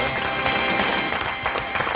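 A burst of applause, steady dense clapping that fills the whole moment at a fairly loud level, with no clear voices over it.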